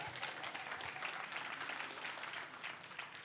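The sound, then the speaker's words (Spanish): An audience applauds steadily, many hands clapping in a dense, even patter that holds at a moderate level throughout without any voices rising above it. “sí, sí, aplauda, siguen aplauda.”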